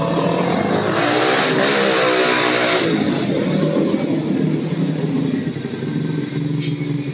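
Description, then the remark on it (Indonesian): Motorcycle engines of local youths riding their motorbikes rev loudly, pitch climbing and dropping in repeated surges over the first few seconds, then settling into a steady, droning roar that continues to the end. “Ya ini ada jamet-jamet lagi main motor nih.”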